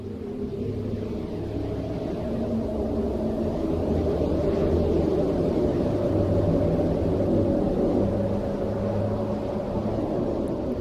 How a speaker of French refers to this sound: ce son si étrange C'est la, la musique des astres et sur cette musique, j'ai lu les toutes premières lignes en fait des Météores de Descartes